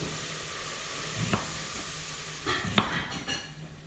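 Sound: onions sizzling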